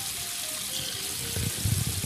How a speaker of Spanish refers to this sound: Mira, un lavabo que parece. Déjame le cierro el agua. Espérate.